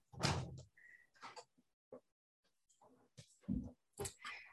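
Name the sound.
door being opened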